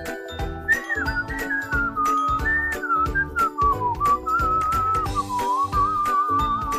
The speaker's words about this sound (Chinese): 大猫熊做了一件好事，整个心情都好起来，边吹着口哨，继续的往前走。